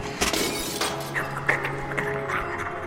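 Glass shatters inside a house with a sharp crash, followed by scattered tinkling fragments and debris settling over a few seconds, loud against a low steady hum.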